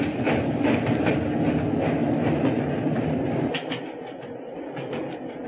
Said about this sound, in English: Stop the train, I say!